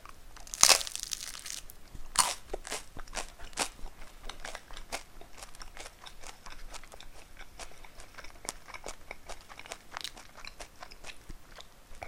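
Crisp crunching from bites of toasted bread eaten during a lunch break, a sharp loud crunch near the start followed by a steady series of dry chewing crackles with no talking.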